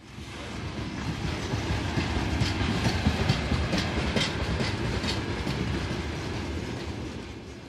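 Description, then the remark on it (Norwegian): A long freight train of coal-laden wagons rumbles steadily past a road barrier just outside Avdiivka in eastern Ukraine, its wagons clattering in a continuous rhythmic clickety-clack with occasional metallic squeals, loud and sustained throughout without any voices. “Et tog med en endeløs rekke vogner lastet med kull passerer forbi en veibom like utenfor Avdiivka i Dombås øst i Ukraina.”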